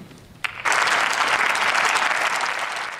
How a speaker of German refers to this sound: Da hat er Applaus für bekommen.